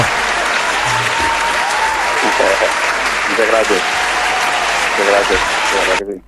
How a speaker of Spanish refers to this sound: lo vamos a despedir a él con, obviamente, con un gran aplauso.